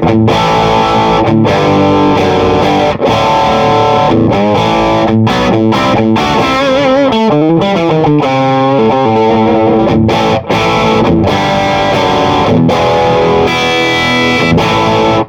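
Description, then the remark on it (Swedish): Loud, fuzzy electric guitar chords strummed steadily for about fifteen seconds, with brief gaps between strokes and a sustained, gritty ring. The guitar plays alone, with no voices. “Nej, men jag, jag bara drar några ackord så kan vi prata lite ja.”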